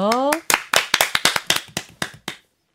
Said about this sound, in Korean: 그러면 박수로 청해드릴게요.